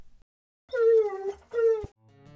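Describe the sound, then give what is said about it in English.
A dog whines twice in close succession, each a high, drawn-out nasal cry that slides downward in pitch, fairly loud, followed by a faint low hum; it plays in an anatomy learning game when a bone name is placed incorrectly on a dog skeleton image. “If the answer is incorrect, the dog hangs his head and whines.”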